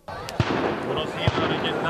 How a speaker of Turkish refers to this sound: Ateş sesleri havaya ateş ediyorlar. Mültecilerin sesleri geliyor çünkü Yunan polisi burada.